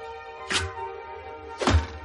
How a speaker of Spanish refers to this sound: La flecha se clava en el exterior del segundo círculo.